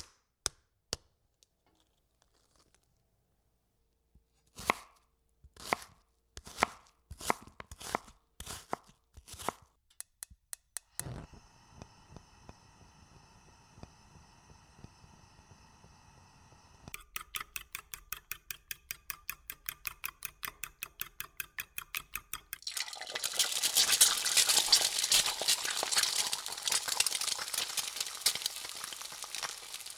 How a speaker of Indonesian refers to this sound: Nah, kebetulan ada telur tinggal satu gue bikin omelet aja kali ya daripada telur gue anggurin keburu jadi ayam